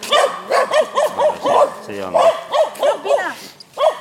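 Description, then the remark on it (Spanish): A large dog barks over and over in a quick, steady rhythm, about ten loud barks in a row with only brief pauses between them. “Uy, que hay, un perro más grande.”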